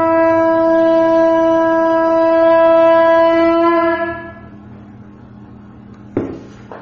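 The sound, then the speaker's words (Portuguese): A conch shell is blown in one long, loud, steady blast lasting about four seconds, then fades into quiet background noise, with a brief knock near the end. “Você tá com o dedão aí para tocar o búzio.”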